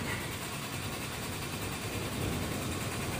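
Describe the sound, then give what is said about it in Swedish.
The engine of a small green Fiat sputters and struggles without catching as the key is turned in the ignition, a rough, steady mechanical rumble with no voices. “Bilen hostade till, men startade inte.”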